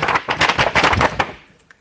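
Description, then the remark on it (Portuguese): A sharp clap of thunder with a loud, crackling roll of rapid bursts that lasts about a second before quickly fading out. “De repente, um trovão.”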